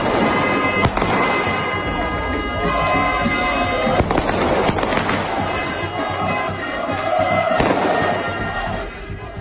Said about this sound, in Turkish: Bursa Sporlu taraftarlar otele havai fişek ve ses bombaları atarken bir yandan da ne mutlu Türk'üm diyene diye tezahürat yaptılar.